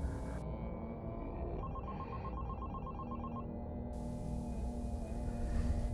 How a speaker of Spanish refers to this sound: Un martes de diciembre, del diciembre pasado cerca de Navidad, el teléfono sonó, pero esta vez sonó diferente.